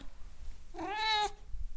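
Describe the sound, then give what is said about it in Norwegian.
A single cat meow, about half a second long, rising then falling in pitch, heard on its own against a quiet background with no one talking. “Hei, pus. Og jeg skal gå og vekke”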